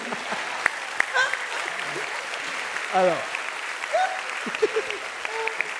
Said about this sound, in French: C'est fou qu'on m'applaudisse pour ça. C'est fou de m'applaudir pour ça.